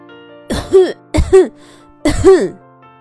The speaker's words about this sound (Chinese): 屋子里传来了一阵深长的咳嗽声，但很快。又安静下来。